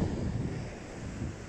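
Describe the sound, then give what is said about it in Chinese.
Sea waves wash steadily along the shore, a continuous low rushing roar with wind buffeting the microphone and no clear breaks between swells; no one speaks. “此刻在海边，感受这浪的澎湃。”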